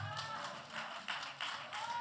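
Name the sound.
audience clapping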